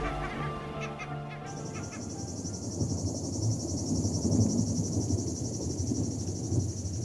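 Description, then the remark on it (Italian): Cicadas on an uphill climb among woods and rocks start up after a brief moment into a steady, shrill, continuous drone that holds to the end, with a low rumbling, rustling background underneath and no one talking. “La salita è il frenire di cicale, boschi e rocce, e quella nebbiolina perenne lassù in cima che fa immaginare la dimora degli dei.”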